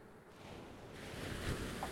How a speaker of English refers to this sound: You're on an island, an island of sorts, and there are waves hitting the shore.